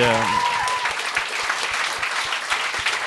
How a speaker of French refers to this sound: en tout cas, on pourrait peut-être l'applaudir. Ça se fait-tu?